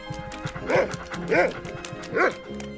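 A dog barks three times in steady succession, each bark sharp and fairly loud, spaced roughly half a second apart with a low background hum between them.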